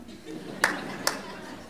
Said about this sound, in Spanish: Sí, aplauda.